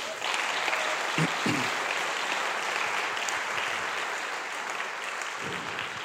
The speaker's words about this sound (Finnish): Tervetuloa, annetaan aplodit hänelle.